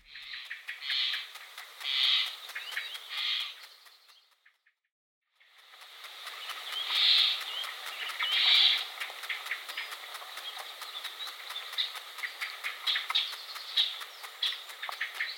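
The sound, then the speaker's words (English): Sap rising inside a tree, heard as a dense, fizzing crackle of tiny rapid clicks with swelling louder patches, a brief complete silence partway through, then steady crackling again. No voices. “the sound that sap makes as it rises in a tree”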